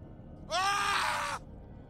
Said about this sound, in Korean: 시계를 보니 아침 8시가 넘어가고 있었다. 바로 그때 밖에서 찢어질 듯한 비명 소리가 들렸다.